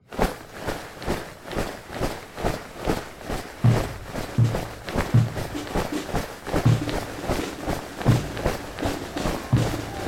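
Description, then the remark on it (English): Steady, rhythmic footsteps of people marching through the streets tramp along at a brisk, even pace in step, fairly loud, with occasional low thuds joining in partway through. “Soundscape for just a few moments, we're going to listen to some of the sounds you may have heard on the day of the battle as people marched through the streets.”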